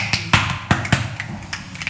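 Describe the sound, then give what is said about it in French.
Sharp finger snaps as body percussion in an uneven rhythm, about four crisp, loud clicks followed by several softer ones, with no voices. “Et, et on le retrouve en flamenco, bien sûr, juste avec les pieds déjà, mais aussi les claquements de doigts sont assez fréquents.”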